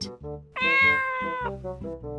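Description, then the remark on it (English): A single loud, drawn-out cat meow lasting about a second, clear, over a steady low tonal background that continues before and after it. “Dad has a cat.”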